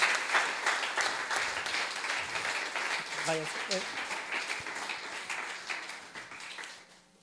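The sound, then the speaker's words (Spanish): A crowd applauds the panelists steadily, a dense wash of many hands clapping at once that holds for several seconds before tapering off, with a brief voice heard faintly partway through. “Ah, muchas gracias a todos los panelistas, si nos puede dar un fuerte aplauso y gracias por acompañarnos.”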